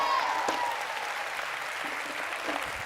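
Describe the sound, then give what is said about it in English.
A crowd claps steadily for a woman, dense, continuous applause at moderate volume for a few seconds, with no talking on top. “Come on, let's hear it for the woman of God, somebody.”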